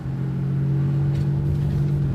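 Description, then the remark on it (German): An old, worn-out car engine drones steadily with a low, roaring exhaust rumble as it is driven through Chicago's South Side, loud throughout, with no voices present. “Dixon steuert sein altersschwaches Auto durch Chicagos Southside. Der Auspuff röhrt”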